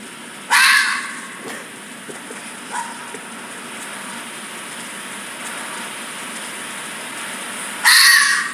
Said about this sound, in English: Have you heard a bobcat scream?